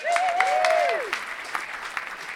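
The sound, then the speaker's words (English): A crowd applauds steadily as guest Huge Davies is clapped in, a dense patter of claps at moderate volume, with a rising and falling whoop or whistle riding over it during the first second. “Do I clap him in?”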